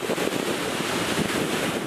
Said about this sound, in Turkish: Tekirdağ'ın Süleymanpaşa ilçesinde bir haftadır etkisini sürdürüyor Lodos. Lodos nedeniyle dalgaların yüksekliği yer yer 5 metreyi bulurken Tekirdağ limanına yanaşacak olan yük gemileri de açıkta demirledi.